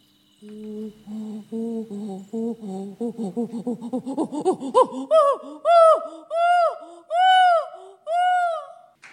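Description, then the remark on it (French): Primatologist Jane Goodall imitates a chimpanzee pant-hoot: low, breathy rhythmic hoots that speed up and climb in pitch, breaking into several long, loud, wavering high calls. “Elle apprend à parler le langage des chimpanzés. Écoutez-la.”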